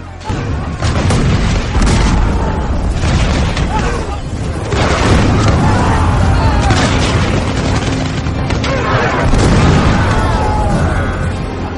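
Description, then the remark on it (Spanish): Deep cannon booms rumble beneath rapid, crackling volleys from thousands of Turkish muskets fired from siege parallels at a city wall, forming a dense, continuous roar of gunfire that stays loud for the whole stretch, with sharp bursts scattered throughout. “Metí la bala y comencé a cebar la carga cuando un grave tronar llegó a nuestra muralla a la par que se distinguía miles de mosquetes que descargaban los turcos desde las paralelas.”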